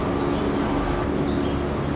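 airplane flying overhead

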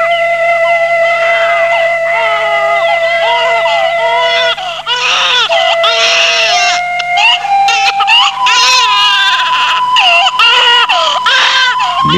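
baby crying and fussing

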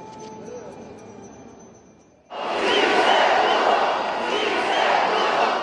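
crowd shouting with joy

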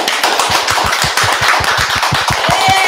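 audience clapping

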